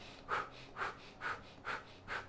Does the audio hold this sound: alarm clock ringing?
no